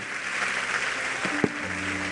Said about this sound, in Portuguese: Vamos aplaudir a Ele, vamos celebrar a nossa comunhão.